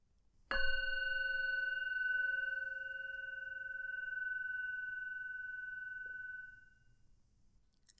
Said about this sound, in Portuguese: um momento após o outro, até que os sinos toquem, sinalizando o fim da prática.